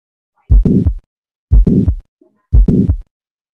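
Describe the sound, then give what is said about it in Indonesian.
Heart sounds through a stethoscope on auscultation of a 50-year-old man who is short of breath on exertion: three loud, evenly spaced beats about a second apart, each a long whooshing thump, with nothing else between them and no talking. “Tapi nggak apa-apa, ini ada seorang laki-laki 50 tahun, sesak saat aktivitas, pada auskultasi temukan suara.”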